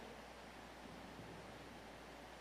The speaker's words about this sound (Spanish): No, ve que está lloviendo, pues. Ya quiere salir corriendo.